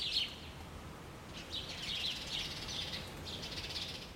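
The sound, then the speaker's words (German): A dense evening chorus of a large group of sparrows chirping at once before sleeping, a continuous overlapping chatter of high tweets, steady and moderately loud with no voices. “Und abends vor dem Einschlafen treffen sie sich in großen Gruppen zum Chorgesang, wie es die Ornithologen nennen.”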